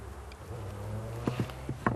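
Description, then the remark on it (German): A low, steady hum of honeybees buzzing at the hive while beekeepers use a smoker, droning continuously with a few soft knocks and clicks scattered over it. No one speaks. “der Rauch, klar, symbolisiert das Feuer und die Biene muss sich dann schützen davor. Und deswegen geht sie ins Volk und weg von dem Rauch.”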